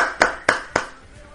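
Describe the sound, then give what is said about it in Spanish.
Three sharp, loud hand claps in a quick, even rhythm, followed by near silence with only a faint low background hum. “Y un fuerte aplauso.”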